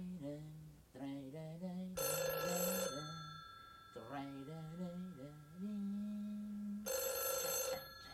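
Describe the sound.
A telephone bell rings loudly in two separate one-second bursts, spaced several seconds apart, while a voice sings a wavering melody underneath and between the rings.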